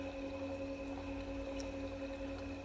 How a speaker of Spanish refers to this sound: Escucha cómo fluye el agua, todo está creado a través del agua. Vamos a ir a un cenote.